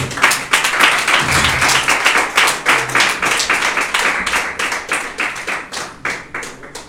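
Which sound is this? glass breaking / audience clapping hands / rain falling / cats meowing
audience clapping hands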